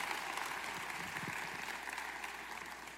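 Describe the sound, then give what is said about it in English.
An audience claps together in a steady, dense burst of applause that holds at an even loudness for the full few seconds, with no voices rising above it; those who have been through the January fast clap for those who have not. “If you've been through the fast, give, clap real quick and let them know they'll be all right.”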